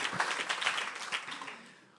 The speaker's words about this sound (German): Steht mal auf, wo sind, wo sind sie denn, die, die Klassensprecher? Ja, wow. Die kriegen einen Applaus, die haben was Besonderes gemacht. Super. Hey, großartig.